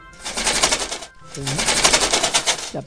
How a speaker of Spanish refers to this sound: ¡Ah! Si es el lobo, espérate que sube la persiana que quiero hablar con él.